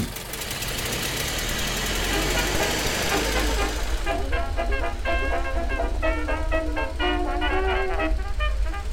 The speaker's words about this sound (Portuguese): Senhor Fanfarra, quantos carros iguais a é esse o senhor possui? A frota das indústrias Fanfarra contam com 20 automóveis Ford modelo T e mais cinco caminhões modelo Ford TT.